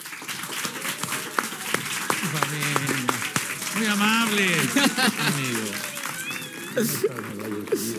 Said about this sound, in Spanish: Un fuerte aplauso para Daniel Bisoño.